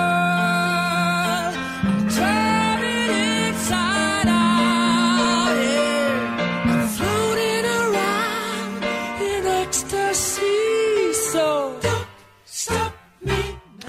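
A pop song recording plays loudly and continuously, with a sung lead vocal over a full band, before the music thins out into a few choppy bursts near the end.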